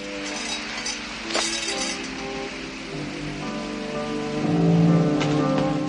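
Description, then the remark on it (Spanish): Heavy rain pours down in a steady, dense hiss that swells slightly toward the end, with soft sustained tones humming underneath and no voices. “Luego se tumba sobre los sacos junto a él y escuchan la lluvia.”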